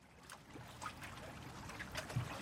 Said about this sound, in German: Ein Hafen an der Küste Gran Canarias. Yachten und Segelschiffe ankern friedlich im tiefblauen Meerwasser.